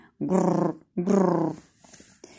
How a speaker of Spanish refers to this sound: Era la hora de comer y Celia tenía mucha hambre, tanta que su barriga no paraba de rugir.